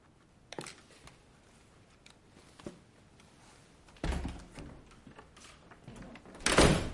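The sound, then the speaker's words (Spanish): A door closes with a scraping slide and a solid thud after a package is delivered, followed by shuffling and handling noises as the package is moved, then a louder rustling burst near the end. No one speaks. “Después cierra la puerta y mueve el paquete.”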